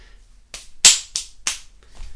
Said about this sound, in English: that's me clapping the dust off my hands.